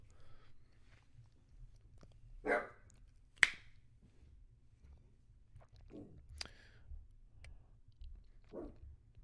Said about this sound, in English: And then there's fucking Ruggles who always wants to bark at every little thing.